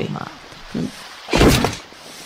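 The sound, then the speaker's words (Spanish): A heavy door wrenches loose with a single loud thunk and a brief scraping rumble, preceded by a couple of short vocal sounds. “La puerta, la puerta de la cena, dale.”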